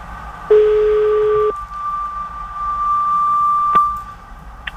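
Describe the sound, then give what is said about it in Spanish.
A telephone ringing tone on a call to a member of a food distribution cooperative in Villa Adelina sounds once, a steady mid-low hum lasting about a second, then a faint, thin higher whistle lingers on the line. No one speaks. “Suena, suena.”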